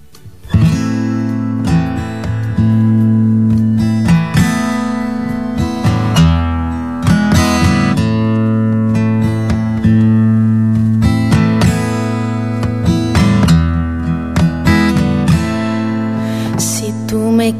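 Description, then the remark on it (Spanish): A recorded song plays from a CD loudly and steadily, with sustained tones and layered harmonies over a low bass line, punctuated by regular note changes and no voices heard. “desde su bonito CD track que me regaló.”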